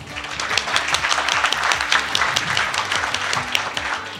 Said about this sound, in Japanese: 盛大な拍手でお迎えください